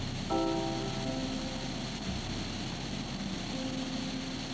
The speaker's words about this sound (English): You hear initially static as the recorder starts to run, two wheels on the front spinning before you.